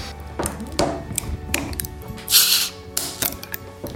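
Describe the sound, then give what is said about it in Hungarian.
A crown-capped drink bottle is pried open: a series of sharp metallic clicks and scrapes, then a brief, bright fizzing hiss as the cap releases, followed by a few more light clicks. No one speaks. “Hallottam a sziszenést, ezt a picit.”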